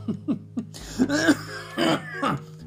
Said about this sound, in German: Ach, mein Husten.